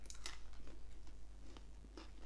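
Crunching as someone bites into and chews a white chocolate with nuts during a chocolate taste test, with several brittle crackles at an irregular pace, fairly quiet and with no talking.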